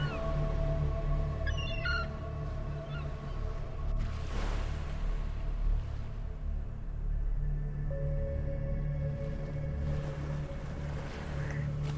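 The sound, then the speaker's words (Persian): A few seagull cries ring out softly in the distance early on over a steady, loud low rumble like a boat engine by the sea, at the seashore with waves reaching the shore, with no voices. “صدای آواز مرغای دریایی رو میشنویم آروم در دوردست و برای ریلکس شدنتون کافیه”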